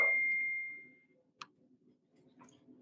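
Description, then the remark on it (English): A phone's text-message alert chimes once, a bright tone ringing out and fading over about a second, followed by two short, sharp clicky blips against a faint background murmur. “Those are some incredible text messages coming in.”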